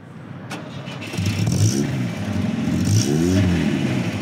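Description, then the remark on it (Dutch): The engine of a classic, 60-year-old Volvo P1800 cranks briefly, catches and starts, then settles into a low, slightly sputtering idle before being revved up in a couple of rising and falling swells. “Hij loopt en hij pruttelt een beetje.”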